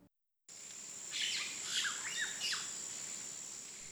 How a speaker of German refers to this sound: Hier summt und brummt es. Bienen, Grashüpfer und besondere Pflanzenarten, die in der lauten asphaltierten Großstadt keinen Platz mehr finden, finden auf Brachen neuen Lebensraum.